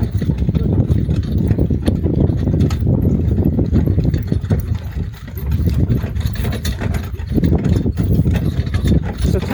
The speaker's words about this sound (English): Oh, and now we're trotting, so you're going to hear that a little bit. You definitely hear the horses now. I'll just be quiet.